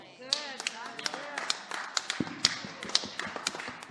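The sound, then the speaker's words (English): A single person claps steadily, with sharp, evenly spaced claps about twice per second, fairly loud, while a voice talks briefly underneath at the start. “I'm going to keep clapping until you clap.”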